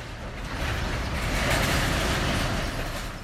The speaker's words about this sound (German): Durch die Grenzstadt Boten fahren derweil jeden Tag hunderte chinesische Lkw und mehrere Güterzüge.